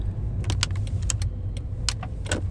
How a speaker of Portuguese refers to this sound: Ai, peraí que eu vou ter que estacionar aqui.